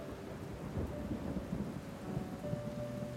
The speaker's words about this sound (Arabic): تحب اجي اخدك من المكان اللي انت فيه المطره نازله جامد